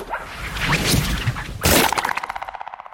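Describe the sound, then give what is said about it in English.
A rushing swish as a bug-like creature's body is swung around in the air builds into a loud, hard smash as it is thrown into a wall, followed by a rapid, fading rattle of clattering debris, with no voices. “As soon as it was loose, I swung it around in the air and gave it my best hammer throw into the wall.”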